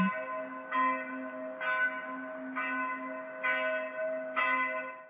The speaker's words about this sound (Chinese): 就在此时，听到教堂敲了钟声